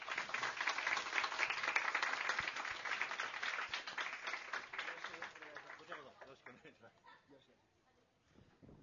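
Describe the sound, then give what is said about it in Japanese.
An audience breaks into steady applause welcoming the navigator and the first guest, an author, onto the stage; dense clapping holds strong for several seconds before thinning out and fading to scattered claps near the end. “皆様拍手でお迎えください”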